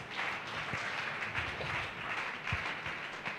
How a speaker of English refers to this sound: May God protect us all. Amen. Clap our two hands for Jesus.